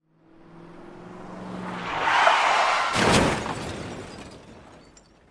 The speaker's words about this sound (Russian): Ева отчетливо услышала холодный, грубый звук разбивающихся стекол